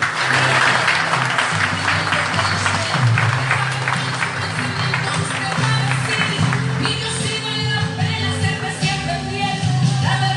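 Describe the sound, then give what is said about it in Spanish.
Loud, sustained clapping from a large audience fills the whole stretch, dense and continuous, with a low steady hum and occasional tonal notes underneath, like music or organ playing beneath the applause; the applause is given to the King. “Fuertes aplausos al Rey.”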